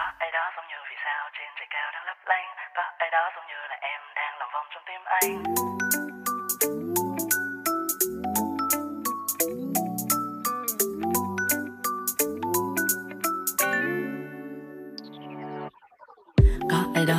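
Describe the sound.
A thin, radio-style voice talks in Vietnamese for about five seconds during a radio break, then an upbeat pop song kicks in loudly with a steady, punchy beat and bright melody, ending on a sweeping flourish.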